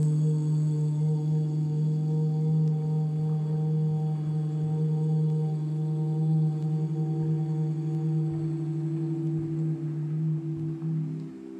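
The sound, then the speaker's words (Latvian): A steady, sustained sung "oo" (ū) vowel during a meditation exercise, held at one low pitch for the whole stretch, rich and resonant with strong harmonics, even in loudness, with no talking. “tad mēs pamēģināsim skaņu, ū. Mazliet savādāk lūpas mums arī novērot to, kā mums ķermenis šo skaņu izveido.”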